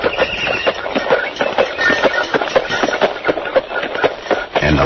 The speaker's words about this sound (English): In the year 1896, milk was delivered in a horse-drawn milk wagon.